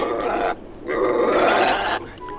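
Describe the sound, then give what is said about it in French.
A pig paddling in the calm water of the Pacific at the tail of a raft convoy grunts loudly in two rough, snorting bursts, a short one followed by a longer drawn-out grunt, with no voices around it. “Un cochon, une chèvre, une vache et un âne fermaient le convoi, barbotant dans l'eau calme du Pacifique.”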